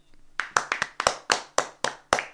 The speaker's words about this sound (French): Attends, je, tu m'as pris de court là. Je, je m'attendais pas euh, aux applaudissements. Je fais des applaudissements un peu plus.